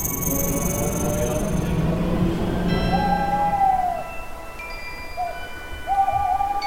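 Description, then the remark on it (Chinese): An owl hoots a few times, each call a smooth, wavering tone with a slight rise and fall, coming after a stretch of steady low rumbling noise. “猫头鹰跟黑魔王打小报告，正在寻找睡不着的小朋友。”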